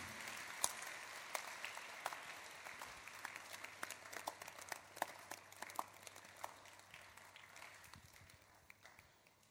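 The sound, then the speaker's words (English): An audience breaks into applause, many hands clapping in a dense, irregular patter at moderate volume, gradually thinning out and fading over several seconds with no voices. “Clap if you are not being chased by a demon.”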